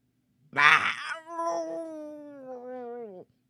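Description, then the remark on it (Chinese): A Tyrannosaurus groans in pain after being bitten by a Gorgosaurus: a harsh, rasping cry bursts out, then trails into a long, wavering moan that slowly sinks in pitch before cutting off. No one speaks. “霸王龙发出痛苦的呻吟声。”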